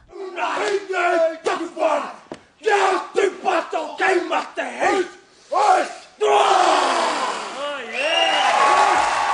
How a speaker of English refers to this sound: last night it was awarded to New Zealand Warriors captain Roger Tuivasa-Sheck, as he accepted the prize on stage, his fellow players rose from the crowd and honoured his achievement with a truly awesome rendition of the haka.